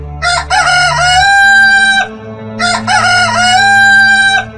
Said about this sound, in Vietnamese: Trời tập mở sáng Tiếng gà gáy mỗi lúc một vang hơn